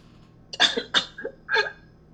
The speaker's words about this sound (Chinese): 再让我擤个鼻涕， 行吧？这段我就不剪掉了，听起来感觉有点悲伤， 难过的鼻涕。 真的难过的鼻涕。